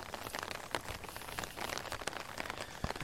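Steady rain patters on an umbrella carried by someone walking along a street where rainwater pools and flows like a river, a dense crackle of drops with occasional sharper taps, continuous and fairly loud with no voices.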